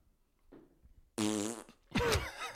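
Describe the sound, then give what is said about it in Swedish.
A voice imitates a stepfather's huge fart as he comes into the living room in the morning: a loud, buzzing imitation in two close bursts, the first steady and the second rougher, after a brief soft rustle. “lägger världens största fis.”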